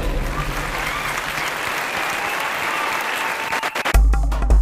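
A crowd applauds steadily, a dense wash of clapping that holds at an even, fairly loud level for about four seconds before cutting off abruptly into a low, different sound.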